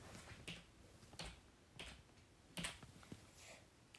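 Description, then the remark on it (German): Someone types a map code on a computer keyboard, pressing keys one at a time in a slow, uneven sequence of sharp clicks with short pauses between them; no one speaks. “Ich hole mir kurz meine Tastatur.”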